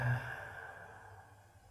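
A single soft, airy exhale, deliberately breathed a little strongly in a breathing exercise, starting with a slight push then trailing off into quiet breathiness. No talking.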